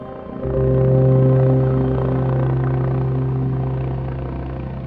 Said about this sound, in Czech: Vrtulníky přistály zpátky v Džalálábádu kolem třetí hodiny ráno.